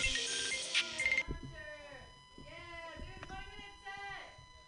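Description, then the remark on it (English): A burst of noisy clapping gives way to a phone ringtone, its warbling tonal pattern repeating a few times at moderate loudness, as a comic on a comedy stage is called by phone. “Okay, I'm gonna bring on our next comic to the stage who's calling on the phone.”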